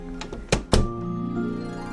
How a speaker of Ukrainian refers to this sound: Мама тихенько постукала у двері і увійшла в дитячу.